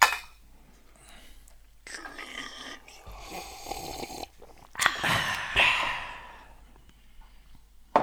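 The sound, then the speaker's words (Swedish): A quiet stretch of rustling and handling, then glasses clink in a brief bright chime midway during a toast, followed by soft sipping and breathy sounds. No one speaks. “Men jag tänker så här, har ni något att skåla med? Vi måste skåla.”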